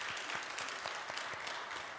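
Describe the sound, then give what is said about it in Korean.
A crowd in a church claps steadily for two seconds, a dense wash of many hands with no pauses and no voices over it. “내가 얘기했으면 박수 한 번 안 치더니 다른 사람에게 박수 쳐주잖아.”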